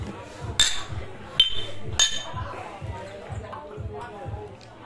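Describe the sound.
Three bright glass clinks ring out in quick succession as glasses touch in a toast in a rustic hut, with a low murmur of voices and background shuffling underneath.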